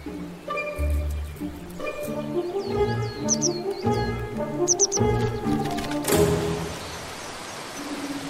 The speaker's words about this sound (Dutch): In het stilstaande water van de bever Beverpoel leven allerlei insecten. Die trekken vogels aan. Zoals de witte kwikstaart en de grote gele kwikstaart.